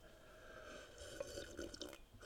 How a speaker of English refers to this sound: After I take a sip of my uh, my sip of my water.